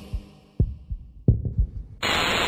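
A heartbeat sound effect: deep, muffled thumps in an uneven double-beat rhythm, fairly loud, cut off near the end by a sudden steady wash of hissing static.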